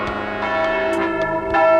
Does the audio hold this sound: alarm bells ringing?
yes